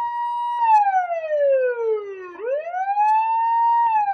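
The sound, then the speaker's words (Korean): A police car siren wails loudly in the early morning, its pitch sliding slowly down over about two seconds, then sweeping back up and holding high, with no voices present. “잠시 후 경찰차 사이렌 소리가 울려 퍼졌다.”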